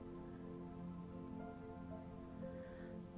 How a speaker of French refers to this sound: Lorsque sa bouche est bien rincée, il remplit de nouveau sa bouche d'eau et la fait sortir entre ses dents immenses, l'eau retombe sur vous comme une douce pluie.